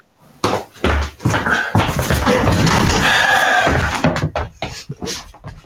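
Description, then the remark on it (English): A loud, chaotic burst of banging and clattering as someone wrestles with a refrigerator, trying to get its door to close, with repeated thuds and rattles over several seconds, fading into scattered knocks. “Did you actually have a, a, fist fight with your refrigerator? That's what it sounded like.”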